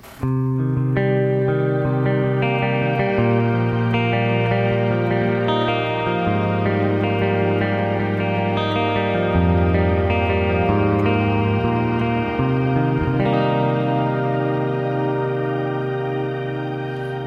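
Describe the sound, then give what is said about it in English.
Sustained guitar chords bathed in shimmer reverb from a Seraphim pedal, played on the clean channel of an Ethos amp with the middle pickup position; mix at 12 o'clock, shimmer about 1 o'clock, depth about 2. Octave-shifted overtones stack into a bright, swelling pad at steady volume, no voices present. “It's basically recirculating octaves. So it's pitch shifting at the same time, but it's progressively pitch shifting.”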